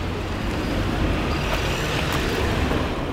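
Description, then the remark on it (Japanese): A car drives in at an intersection, at the traffic signal by the main gate entrance of a former university, over a steady wash of street traffic, engine rumble holding fairly loud and even for a few seconds with no voices. “旧大の正門入り口の信号に今差し掛かりますわあ車がね入ってくるよね”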